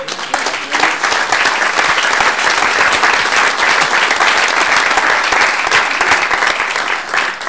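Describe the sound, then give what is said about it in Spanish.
Sustained applause from a church audience, clapping for the Lord during a sermon, a dense, steady clatter of many hands clapping at an even loudness for several seconds, with no speech over it. “¿Por qué no le damos un aplauso al Señor, hermano?”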